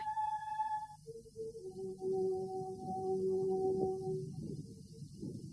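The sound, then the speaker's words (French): The Fifth Symphony, played by an orchestra and heard through a microphone that researchers placed inside a pregnant woman's uterus: sustained notes sound dull and heavily muffled, with a low, watery rumble swelling underneath. No one speaks. “Écoutez cette expérience des chercheurs ont placé un micro dans l'utérus d'une femme enceinte.”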